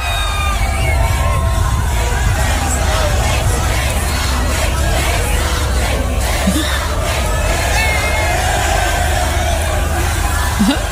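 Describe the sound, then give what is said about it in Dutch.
A Brazilian stadium crowd at the Formula 1 race at the São Paulo circuit sings Verstappen's name in a loud, continuous chant, the massed voices blending into a steady roar with scattered shouts and whoops throughout. “Reden voor het Braziliaanse publiek om Verstappen toe te zingen.”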